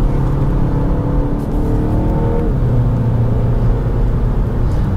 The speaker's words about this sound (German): Also man hört es auch, wenn man schneller fährt, der Motor ist relativ leise und unauffällig. Man kann dann auch noch Iconic Sounds, also künstliche Motorgeräusche aktivieren. Ah, die sind sogar aktiviert.